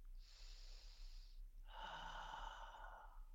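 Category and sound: vocal imitation, imitated heavy breathing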